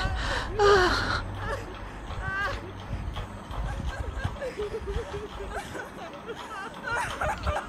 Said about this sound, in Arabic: ساد الصمت إلا من بكاء أمي وخالتي بنحيب مر مؤلم